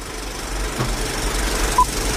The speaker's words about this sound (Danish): skal lige vente til bippet er overstået.